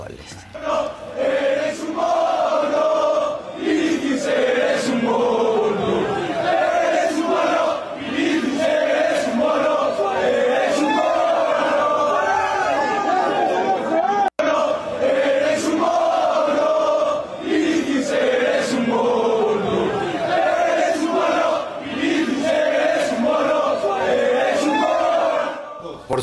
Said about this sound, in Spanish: y por, si, por si no alcanzan a distinguir, hay una versión afuera del estadio, desde antes de que llegara, para que vean también cómo está el grito, justamente.